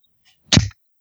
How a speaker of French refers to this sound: ok, c'était le bruit de ta bière, ça. Je pense que c'était pas très clair. Non, c'est quoi? Ça sonnait comment? On dirait que tu t'es fait donner une claque d'en face.